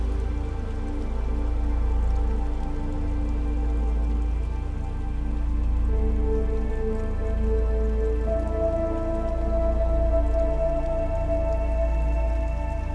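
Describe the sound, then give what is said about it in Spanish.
A gently flowing small stream of clear water babbles steadily throughout, a soft continuous wash of water beneath sustained, mellow drone-like tones, with no one speaking. “Al continuar caminando, encuentras un riachuelo. El agua es transparente y el sonido del agua que escuchas va relajándote más y más.”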